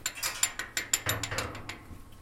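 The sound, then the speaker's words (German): Metallic clicking and clanking as the iron gate closing off the entrance of a cave is unlocked: a quick series of sharp, ratchet-like clicks, then a heavier clunk and rattling of metal, with no voices. “Wir gehen weiter zum Eingang einer zweiten Höhle. Sie ist mit einem Eisentor abgeschlossen.”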